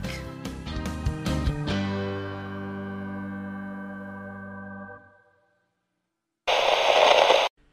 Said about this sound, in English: Channel KRT, cut to static.